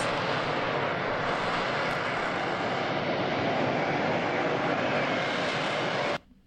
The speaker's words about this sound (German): Und der hat diesen Harrier beim Start und bei der Landung gefunden.